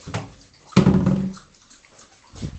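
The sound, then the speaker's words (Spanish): Eggs boiling in a pot, with bubbling water and a few irregular bursts of knocking and rattling as the eggs knock against each other and the sides, moderately loud. No voices. “¿Hay algún sonido más relajante que el sonido de unos huevos hirviendo?”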